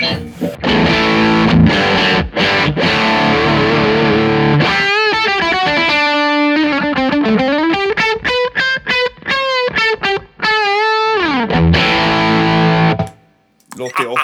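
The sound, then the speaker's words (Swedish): A heavily distorted electric guitar played through a Sweet Honey gain pedal plays loud, saturated chords and then a run of bending, sliding single notes, ringing before cutting out near the end. “Där kan man ju också vilja gaina på lite grann och sen så har man kanske råd att trycka på lite mindre diskant och Exakt.”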